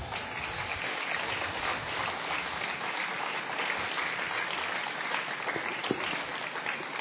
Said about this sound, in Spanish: Un aplauso.